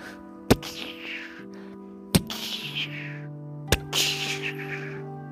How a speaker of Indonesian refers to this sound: Tiba-tiba terdengar suara letupan senjata.